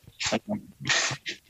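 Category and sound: animal, dog making noises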